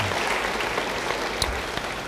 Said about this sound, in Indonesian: Yang mau beri tepuk tangan bagi dia, haleluya.